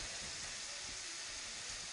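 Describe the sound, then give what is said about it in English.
Ground beef (hamburger) sizzles steadily in a sprayed pan while a spatula or spoon chops and scrapes at it, breaking it into tiny bits, making soft, irregular dull taps under the constant hiss. No one speaks. “Get your spatula or your spoon or whatever you're using and just start chopping at that meat a little. As you stir it around, just start chopping it into smaller bits.”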